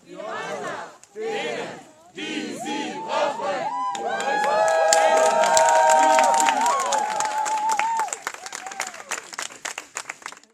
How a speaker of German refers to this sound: Auf der Straße wurden die BesetzerInnen unter großem Jubel von den UnterstützerInnen in Empfang genommen.